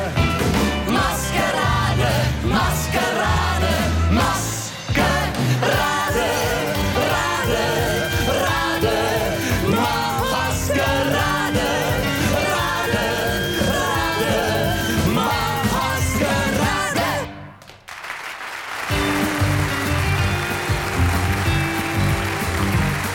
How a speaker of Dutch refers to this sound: Als je naar het applaus luistert in die tijd van deze plaatopname van ….